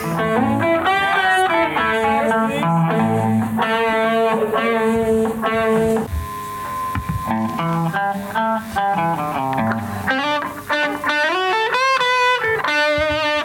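Two overdriven electric guitars play together without other instruments, one holding chords while the other picks out sharper, lead-like melodic lines, loud throughout.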